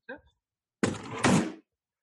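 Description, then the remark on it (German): A drawer slides and slams shut with a dull thunk, the rumble of sliding running straight into the bang. A brief voice sound comes just before. “Warte, ich knall mal so eine Schublade zu.”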